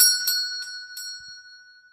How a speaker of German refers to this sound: Ein Glockenspiel ertönte, als Saskia das kleine Geschäft betrat